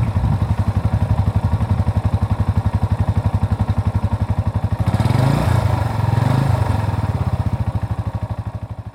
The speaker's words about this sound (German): So, es geht jetzt los in die Berge. Wir haben das äh, Motorrad, nein, also das äh, Motorrad wurde repariert. Der äh, Mechaniker hat es irgendwie hingekriegt. Ja hat irgendwas gefunden, da muss wohl was verrostet sein.